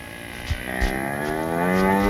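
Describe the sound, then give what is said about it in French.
A gigantic cow with strange fur, carrying a person on its back, moos in one long, loud, drawn-out low call that swells and holds for about two seconds, with a couple of soft thumps near the start. “Alors je suis sur le dos d'une vache là. Une vache gigantesque avec un pelage bizarre, vous savez.”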